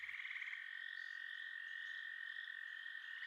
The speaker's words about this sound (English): you're starting to hear the sound of birds and insects chirping. It seems like life has started to return to the area.